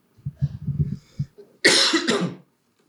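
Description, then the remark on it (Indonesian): A person coughs twice in quick succession, loud, after some low throaty rumbling and throat clearing; the coughs are harsh and breathy. “Batuk mulu gue”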